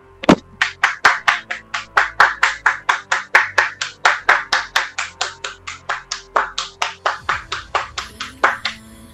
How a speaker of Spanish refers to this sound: Aplausos, por favor.